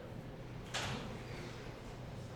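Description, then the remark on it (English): A door is blown open by the wind, banging once with a short, sharp whoosh of movement over a steady low background hum. No one speaks. “sorry my door opened, the wind.”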